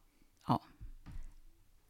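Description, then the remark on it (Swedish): A cat moves about, making one sharp bump followed by a couple of softer low thuds and rustles, with no one speaking. “Oj, det var en katt.”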